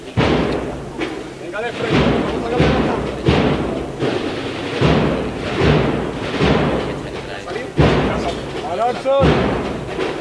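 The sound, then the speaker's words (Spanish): A heavy procession float is lowered onto Calle Feria after passing the doorway atrium of Omnium Sanctorum, with a series of loud, dull thuds, repeating every second or two over a steady murmur of a crowd in the sun at 26 degrees. “Y ahora sí se arría una vez que ya ha pasado todo el atrio de la puerta de Onius Santorum.”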